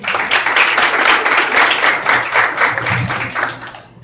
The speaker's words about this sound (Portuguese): Uma salva de palmas.